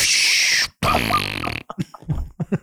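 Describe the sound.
A person blows loud, buzzy raspberries with the mouth, imitating farts: a long sputtering blast, then a lower, wetter one, then several short choppy bursts.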